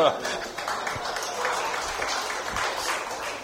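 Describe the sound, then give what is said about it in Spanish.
An audience breaks into applause, a dense, steady wash of many hands clapping at once, holding at an even, moderately loud level throughout with some voices mixed in. “Un aplauso porque lo entendió hasta después al hermano.”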